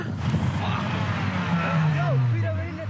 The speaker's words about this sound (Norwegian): Det er skjærtorsdag, og vi kan se at køen med feststemte folk i biler på vei mot Strømstad er lang.